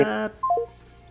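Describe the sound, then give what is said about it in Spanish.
A WhatsApp call dialing tone as a call is placed over WhatsApp: a short buzzy electronic chord, then three quick beeps stepping downward in pitch, clear with no one talking. “Sí, probemos por WhatsApp.”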